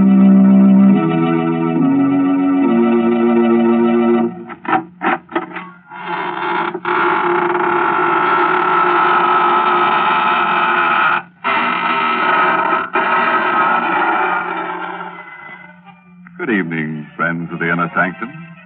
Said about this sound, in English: This is your host inviting you in through the squeaking door.